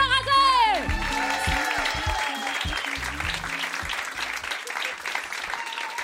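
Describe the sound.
Loud, sustained audience applause at a comedy show, greeting the next comedian, fills the whole stretch, a dense steady patter of many hands, opening with a brief descending musical sting and with voices murmuring underneath.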